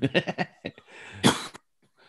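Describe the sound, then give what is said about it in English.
A quick run of short, breathy bursts leads into a single harsh, forceful cough from someone who joined the call, fairly loud, followed by quiet. “well, ooh, suddenly somebody named iPhone jumped in. Yeah, and coughed or something.”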